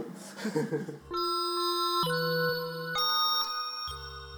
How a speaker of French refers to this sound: Celle-là, elle... celle-là, elle donne bien le rythme. Hein. Et souvent, c'est les vaches de devant. Et ceux qui sont devant, là, ils ont cette cloche toute la journée dans les oreilles, et eh ben, le soir, ils l'entendent trop.